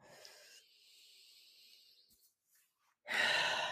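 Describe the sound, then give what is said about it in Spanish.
A long, slow breath drawn in with a soft airy hiss, a brief quiet pause, then a louder, fuller exhale rushing out, with no talking. “Así que bueno, otra respiración profunda.”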